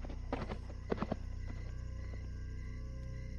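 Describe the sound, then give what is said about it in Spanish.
A few hollow hoof clops ring out early on from a rider's huge black horse arriving with mules loaded with bundles, then fade into a low, steady background rumble, like a horse stepping along at a walk. “Lo escucharon venir nuevamente montando su enorme caballo negro, y venía con sus mulas cargadas con bultos.”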